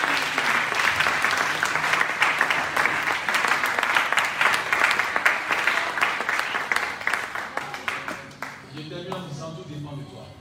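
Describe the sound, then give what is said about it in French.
An audience bursts into sustained, dense applause to acclaim the word of God, many hands clapping loudly together for several seconds before it thins out and fades as a voice begins to come through. “Acclame fortement la parole de Dieu.”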